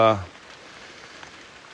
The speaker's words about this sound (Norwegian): Ja, det ser ut som det kommer litt hagl òg. Eller kanskje bare regn. Da kan vi gå litt unna halvtaket. Så får det heller være at eh, vi får med at det eh, regner litt. Men eh, sånn er jo høstværet.